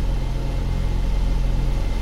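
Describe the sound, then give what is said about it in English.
A car zooms down an abandoned section of Route 32 in Oregon, with a steady engine drone and low rumble that stays constant throughout. There are no voices. “she zoomed down the abandoned section of Route 32.”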